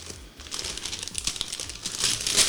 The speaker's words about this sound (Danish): Jeg tror, jeg skruer lidt ned på din mikrofon, så der ikke er så meget knitren